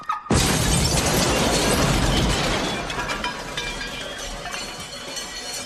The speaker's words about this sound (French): Ils ont plastiqué ma caisse